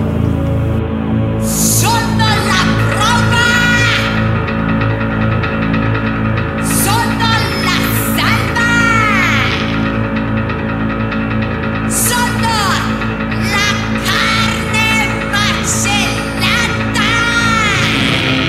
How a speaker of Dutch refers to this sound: ze heeft een heel aparte stijl. Op het podium eh, zit ze aan een piano, helemaal in gothic kleren en ze schreeuwt meer dan ze zingt. Eh, het is heel speciaal.